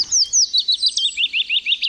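A willow warbler sings a soft, sweet phrase of high, quick notes that descend gently in pitch, repeated in an even rhythm of about ten slurred elements, with no voices.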